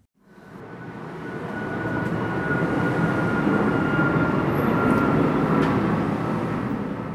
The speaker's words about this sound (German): Was löst das Geräusch bei Ihnen aus? Für ganz viele Menschen in der Schweiz ist Fluglärm wohl eher eine nervige Angelegenheit.